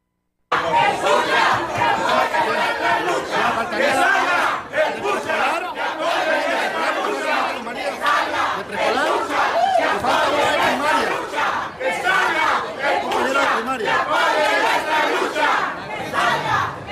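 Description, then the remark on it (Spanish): A crowd of more than 2,000 teachers protests in the morning at the gates of the Government Palace on Plaza de la Reforma, chanting loudly and continuously, voices rising in rhythmic shouted bursts, with dense collective yelling and no pauses. “vamos a ver este video y también a escuchar cómo se manifestaban ahí a las puertas del Palacio de Gobierno esta mañana”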